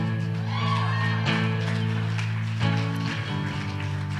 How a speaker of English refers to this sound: Come on, He is Lord of all. Amen. Give one more shout of praise.